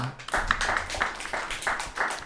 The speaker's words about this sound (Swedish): Jag tycker att det är värt en applåd.